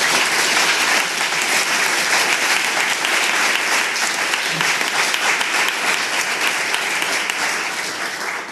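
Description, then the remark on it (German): Sustained, dense applause from a large audience, loud and steady throughout with many hands clapping at once, tapering slightly at the very end. “Ah, genau, ich kann da nochmal einen Applaus geben.”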